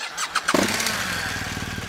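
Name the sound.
motorcycle engine starting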